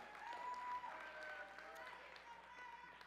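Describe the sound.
A crowd applauds steadily for a volunteer called up on stage to help the speaker, a dense wash of many hands clapping together for the whole few seconds, with a few voices calling out over it from the audience.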